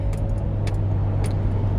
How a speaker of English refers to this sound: Wow, I know you guys heard that car. I'm driving home from work.